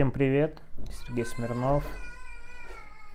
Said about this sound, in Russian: Вот кошка пришла готовится к Хэллоуину.